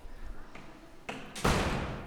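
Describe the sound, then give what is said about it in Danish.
The main entrance door of a Danish school swings shut with a solid thud that rings out briefly as people enter, preceded by a softer knock-like bump, against faint indoor background noise. “Vi skulle lige gå ind for døren”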